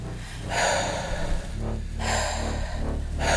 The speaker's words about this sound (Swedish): Ta några djupa andetag. Försök lokalisera ditt hjärtas slag. Andas djupt in.